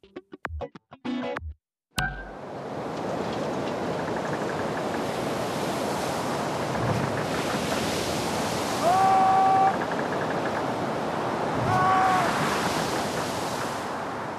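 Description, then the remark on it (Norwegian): Stormy surf on the Rogaland coast of Norway roars in a continuous, dense wash of noise with gusts of wind, swelling and ebbing; a few faint tonal whistles rise briefly over the churning sea. No one speaks. “Det er høst, og Rogalandskysten herjes av en forferdelig storm.”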